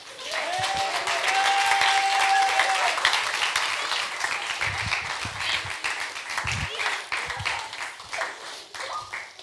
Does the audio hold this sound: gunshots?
no